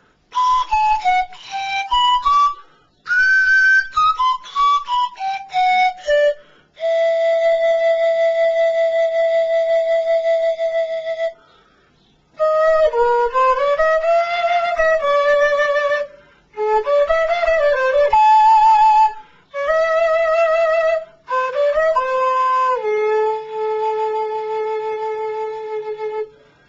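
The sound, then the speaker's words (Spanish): A small handmade sicu (zampoña) panpipe plays alone: quick descending runs of breathy, flute-like notes, then long held tones and wavering melodic phrases, fairly loud with short pauses between passages. “Este es un, cicus chico, o zamponias en castellano. Este es el sonido.”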